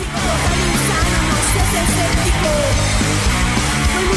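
A loud, dense hard rock punk song plays continuously, with a heavy, distorted wall of sound and a driving, steady rhythm filling the whole stretch.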